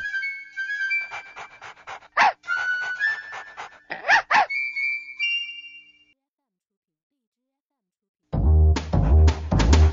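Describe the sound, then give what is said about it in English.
A puppy whimpers in high, wavering whines broken by quick breathy pants, clear for several seconds, then falls silent before a louder voice cuts in near the end. “Puppy sees a little mouse.”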